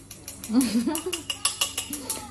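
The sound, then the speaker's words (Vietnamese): Quick, repeated clinks of a spatula against a frying pan as eggs with plenty of green onion are flipped at high speed, a dozen or so sharp taps in rapid rhythm, with a voice murmuring underneath. “tôi lại thể hiện cho các bạn khả năng lật trứng của tôi tiếp này nhưng mà tôi lật tốc độ cao nhá các bạn phải nhìn kỹ nhá”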